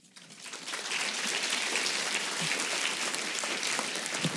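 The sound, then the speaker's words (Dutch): Audience applause at a De Buren evening, welcoming the speakers, swells up within the first second into a steady, dense patter of many hands clapping, holding at an even, fairly loud level throughout. “Nu rest er ons enkel jullie een fijne avond toe te wensen en te vragen de sprekers te verwelkomen met een hartelijk applaus.”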